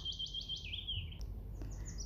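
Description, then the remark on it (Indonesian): A bird chirps in a rapid run of high, rising tweets, then a sustained warbling note and a few sharper chirps, over a low steady background hum with no talking. “Sahut si burung lincah. Lagi pula, siulnya.”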